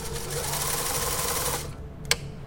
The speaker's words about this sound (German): Ich lege den Film ein und spule nach vorn.